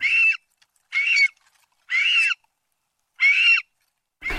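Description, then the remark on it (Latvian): A lesser spotted eagle in its nesting area gives short, harsh, noisy 'kjip' calls, five in a row with short pauses between, each a raspy mid-pitched burst a little like a small dog's yap, with no one speaking. “Balss Līgstas rajonā trokšņains spalks kjip, paviršā salīdzinājumā maza sunīša riešana.”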